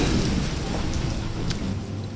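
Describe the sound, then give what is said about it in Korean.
Steady, dense rain pours down continuously, with a deep low rumble of thunder rolling underneath throughout; no voices, just the full, enveloping sound of a storm. “아, 아 비가 내린다.”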